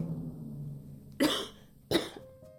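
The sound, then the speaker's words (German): A woman coughs twice in quick succession, two sharp, harsh bursts about half a second apart, fairly loud against a quiet, low background hum. “Sie hustete, weil sie immer noch glaubte, die Asche der Verbrannten in den Lungen zu haben.”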